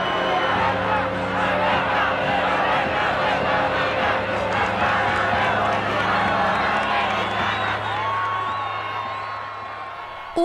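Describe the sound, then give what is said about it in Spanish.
An excited crowd in the Plaza de Bolívar chants and shouts together as a sword in a glass case is carried to the stage, a dense, continuous roar of many voices staying loud for about ten seconds before easing slightly near the end. “El público se emociona, se escucha un cántico de fuego.”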